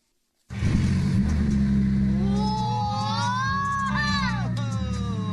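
A Lamborghini engine, revved by a young boy behind the wheel, roars to life, rumbling deeply before revving hard, its pitch climbing steadily and then falling away, with faint crowd noise in the background.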